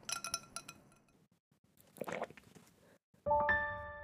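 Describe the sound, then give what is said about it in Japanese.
Ice clinks in a glass of milky iced caffè latte with a quick flurry of bright, light taps, then a short soft liquid swish, and finally a louder, sustained glassy ringing tone. “カフェラテを一口飲むとコーヒーの香ばしい香りが口いっぱいに広がった氷の尖った冷たさやコーヒーのツンとした苦みがたっぷりのミルクに包まれて優しくまろやかに喉を滑り落ち染み渡って体を冷やしていく”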